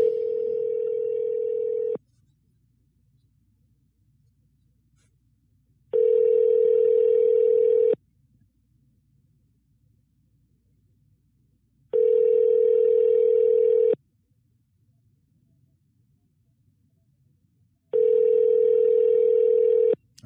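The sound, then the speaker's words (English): An outgoing phone call to someone who sent their number goes unanswered: a ringback tone repeats four times, each two-second steady tone separated by about four seconds of silence. No one speaks. “right, somebody sent me their number, but they're not picking up.”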